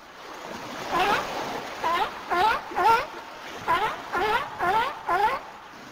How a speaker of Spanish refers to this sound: ¿Sabes de qué se trata? Si respondiste foca, acertaste. Muy bien.